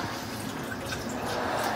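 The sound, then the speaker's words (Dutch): Lukewarm water pours steadily into a shaker, a continuous splashing trickle lasting a couple of seconds with no one speaking over it. “En je doet daar lauw water in of koud.”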